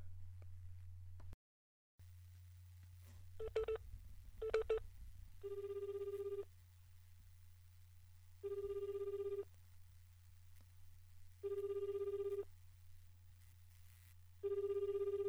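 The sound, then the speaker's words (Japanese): A phone line with a steady low hum: a couple of short dialing beeps, then a repeating ringback tone, each about a second long with two-second gaps, sounding four times. “出るかなあ出えへんかな”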